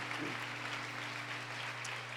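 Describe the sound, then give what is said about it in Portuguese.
A church audience applauds the name of Jesus Christ during a service, a dense wash of many hands clapping at once, sustained and evenly loud throughout with a low hum underneath. “Nós como igreja te louvamos e aplaudimos o teu nome, porque tu és digno de honra e de glória, em nome de Jesus Cristo.”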